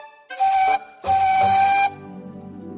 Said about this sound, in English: She is a big, strong tender engine with a whistle that sounds like this.